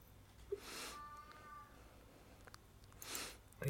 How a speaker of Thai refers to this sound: มีแมวร้องด้วยใช่เดี๋ยวขอโทษเดี๋ยวคัดก่อนคัด ไม่เป็นไรไม่เป็นไรไม่เป็นไรช่างมันไม่เป็นไร แมว